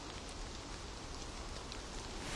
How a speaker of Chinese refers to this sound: 黄潇听到外面淅淅沥沥的雨声，他发觉外面已经下起了雨。